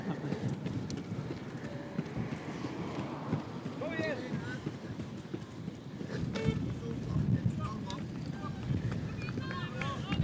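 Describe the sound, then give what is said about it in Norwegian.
Steady wind buffets the microphone outdoors during a running race on a long, steep hill, a constant low rumble throughout, with faint voices of spectators and movement sounds mixed in beneath it. “Dere hører jo sikkert vinden.”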